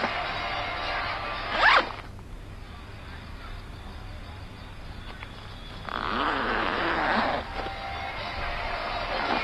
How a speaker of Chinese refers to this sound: 第十一集的片尾字幕后出现了一个彩蛋，白爸回家后听了一下那个录音，他听到了小白拉开手包拉链的声音。